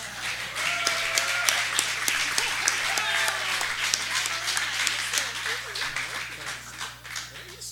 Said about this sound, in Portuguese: Naruna Costa, uma salva de palmas.